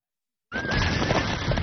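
A horse neighs after a moment of silence, a loud, rough whinny with a thin high pitch running through it, lasting just over a second.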